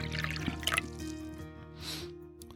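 Liquid is poured into a glass in a short, gentle stream, with a couple of light clinks near the start, all fairly quiet over a soft, steady musical hum.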